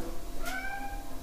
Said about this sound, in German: Mein Kater meckert gerade, ich weiß gar nicht warum. Hm. Weiß er wahrscheinlich selber nicht. Ne? Wir öffnen mal die Tür zur Küche und schaue dort was der Kater will.